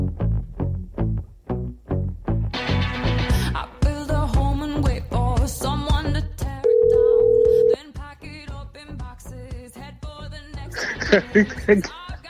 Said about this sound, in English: Let's pick up the phone and give him a call.